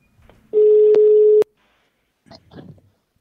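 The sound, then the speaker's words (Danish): A single telephone ringing tone as journalists ring the government's support parties, a steady electronic beep lasting about a second, loud, followed by a brief faint rustle or mumble afterward. “de ringede så derfor til regeringens støttepartier i stedet for, og Pia Kærsgaard fra Dansk Folkeparti, for at høre, hvem de tror har begået fejl i regeringen.”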